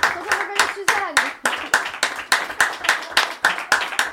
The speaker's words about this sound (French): Vous avez animé comme il fallait la soirée, on continue à applaudir.